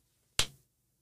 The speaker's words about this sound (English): We're clapping. There's no echo.